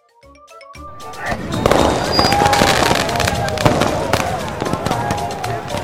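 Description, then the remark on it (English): Fireworks burst in a rapid, continuous barrage of crackles and pops, with whistling streaks rising over the din. Loud, and a crowd murmurs faintly underneath. “watch fireworks or fireflies.”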